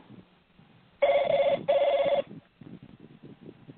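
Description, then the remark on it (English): A telephone rings loudly in two quick bursts of bright, warbling trill, then stops as it is answered, leaving faint low rustling and movement sounds. “Victor's head pops up, hitting his head. He rubs his head as he answers.”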